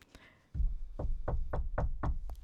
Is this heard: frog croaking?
no